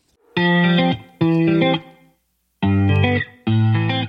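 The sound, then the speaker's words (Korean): A K-pop track plays on the KBS Cool FM 89.1 radio show Kang Han-na's Volume Up: four loud, sustained chord blasts with a bright, distorted synth tone, grouped in two pairs separated by a short silence, with no voices audible. “저희는요, 노래 듣고 올게요.”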